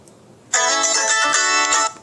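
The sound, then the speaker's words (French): A telephone rings once as a radio programme calls its correspondent, a loud, steady electronic tone that starts abruptly, holds for over a second, then cuts off, with no voices around it. “On appelle Céline Corsia.”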